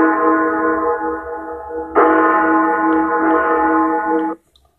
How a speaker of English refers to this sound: Where are these bells?